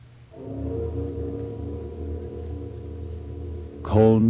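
The great bell of an old Chinese city tolls once, its deep, resonant tone ringing steadily with layered overtones for several seconds before a voice starts speaking at the very end.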